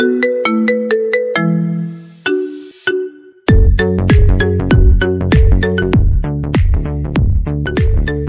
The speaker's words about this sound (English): uh, here we go with song number five. Okay. Uh, name that ringtone.